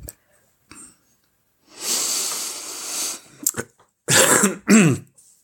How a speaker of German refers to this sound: Ja, da muss ich mich erstmal räuspern.